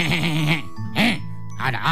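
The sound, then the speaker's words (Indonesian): A voice imitates a goat bleating: three wavering, quavering bleats, fairly loud, with short pauses between them. “Dia kan masih punya si kambing yang lebih besar daripada si ayam.”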